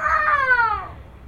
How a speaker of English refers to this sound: as you can hear him in the background, he's literally mad at his Legos right now.